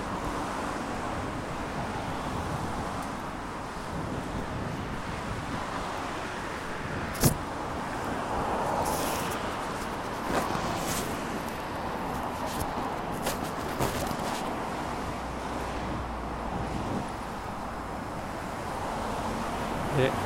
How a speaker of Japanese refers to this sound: というかすごい車がうるさいですねこれあんま良くないなこれ。